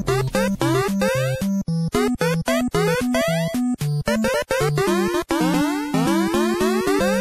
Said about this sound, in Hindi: अरे हाँ excite bike का नाम कैसे भूल सकते हैं जिसका बैकग्राउंड स्कोर सुन के हम कितने एक्साइटेड हो जाते थे